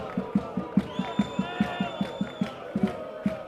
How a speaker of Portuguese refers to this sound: Na bancada, os adeptos cantam, gritam e desesperam.